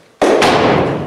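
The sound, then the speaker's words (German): Two quick, loud knocks on an expensive olive wood coffin at an undertaker's, the second following right after the first, with a hollow, violin-like ringing resonance that lingers. No voices. “Ah, das ist wie eine Geige. Oder? Ja. Ähm, das ist Olivenholz.”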